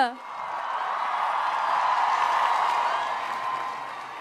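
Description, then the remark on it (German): Sustained crowd applause with cheering for Greta Thunberg, a dense wash of clapping that swells and holds steady for several seconds, with a brief tonal voice at the very start. “Ein Riesenapplaus”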